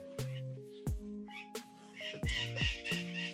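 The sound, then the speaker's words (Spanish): A bird squawks and chatters in several sharp, harsh bursts over a few seconds, fairly quiet, with a faint steady tone humming underneath and no talking. “está hablando un pájaro, ya está comentando.”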